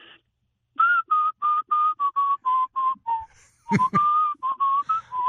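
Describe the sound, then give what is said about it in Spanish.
A man whistles a song melody, a run of short, evenly paced notes drifting slightly in pitch, with a brief thump partway through and no talking. “Y de momento cuando a punto de llegar al cuarto piso, al cuarto piso, de momento yo pego a silbar, a decir”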